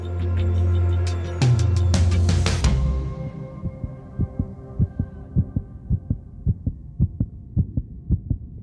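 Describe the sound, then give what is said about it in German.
A muffled rushing whoosh of blood in the ears and a low hum open the scene, then give way to a loud heartbeat thumping in a steady, regular rhythm, as heard inside one's own head, with no voices. “Da höre ich meinen Herzschlag ganz laut und höre mein Blut in den Ohren rauschen, mir wird heiß und kalt und dann steigt so ein Gefühl der Panik in mir auf.”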